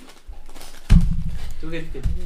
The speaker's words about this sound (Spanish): El repiqueteo. El repiqueteo de de los pasos de los caballos en la carreta dejan que sus mentes vayan por todo lo que han pasado hasta ahora.